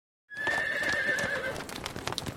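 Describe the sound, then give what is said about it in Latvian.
A horse hitched to a cart gives a loud, wavering whinny lasting about a second, followed by a quick run of hooves clip-clopping. No one speaks. “Rītā vīrs iejūdzis zirgu, iesēdinājis sievu ratu priekšā, pats ratu pakaļā uz sēžamā un tad laiduši pie kunga.”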